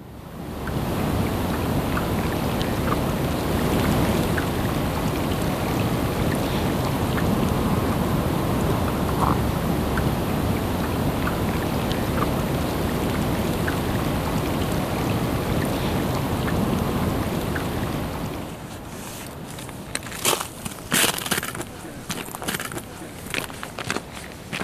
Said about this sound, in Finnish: Nastia Säde-Rönkön näyttelyssä voi kuulla myös, miltä kuulostaa, kun jäätikkö sulaa Islannissa – Pahaenteista kyllä, Hidas sulaminen ilman irtilohkeavan jäämassan paukahduksia ei kuulosta juuri miltään.